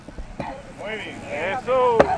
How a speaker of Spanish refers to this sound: Ahí va. Ahí está. Este es el sonido de esta mujer de sesenta y pico de años agarrando un marrón y derrumbando una pared de concreto.